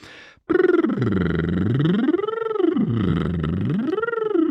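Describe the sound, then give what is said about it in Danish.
A single voice sings a continuous warm-up siren, sliding smoothly up and down in pitch in slow, wave-like sweeps, using the abdominal muscles to support the voice. It is steady, with no talking. “Jeg ligger og kører op og ned, og den der, den sætter gang i, i øh, maven.”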